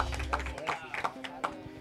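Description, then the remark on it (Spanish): A small group in the Dominican Republic gives a brief, scattered round of applause for a woman, a handful of sharp claps at uneven intervals, mixed with people talking. “Los tigres, un aplauso para ella. Tienen que darle rápido.”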